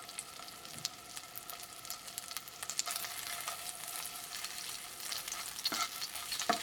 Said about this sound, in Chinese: 那等到差不多油都已经热了之后呢，你就可以把蛋黄放进去，然后它就会冒出咯吱咯吱声音。